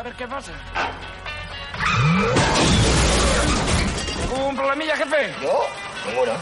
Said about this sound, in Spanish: Al recular choca con el coche de atrás.